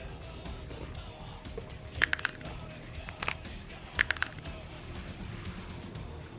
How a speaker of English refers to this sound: All right, come on, Harry sneak in there and snap their necks.